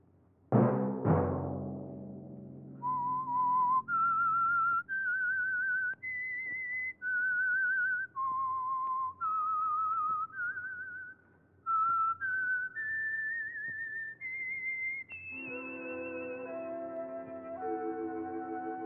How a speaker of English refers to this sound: Let that whistle be your signal for the Signal Oil program, The Whistler, each Sunday night at this same time.